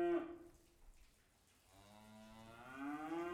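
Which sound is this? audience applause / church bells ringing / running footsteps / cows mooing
cows mooing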